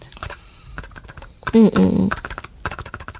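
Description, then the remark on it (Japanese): Quick, irregular keyboard typing clatters, with a brief burst of voice in the middle before the steady key clicks carry on. “お母さんのタイピングの音そのものが安心できる音として子守歌かのようにうっすらとまどろみかける材料になっていたと思います。”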